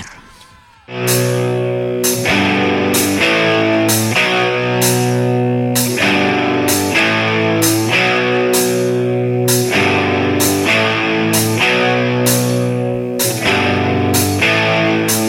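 Loud rock music with heavily distorted guitars kicks in after a brief quiet moment, pounding out thick sustained chords that change in a steady rhythm roughly every second.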